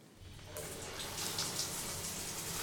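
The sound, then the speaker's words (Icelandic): Steady water streams down from a running shower with a constant hiss, rising in strength after a quiet first moment and then continuing evenly, moderately loud. “Fyrstur á dagskrá er sturtu söngverðin okkar sem syngur af mikill í innlífun heimi á sér.”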